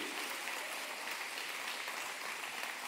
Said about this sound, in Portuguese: Você acredita nisso? Então pode aplaudir ao Senhor.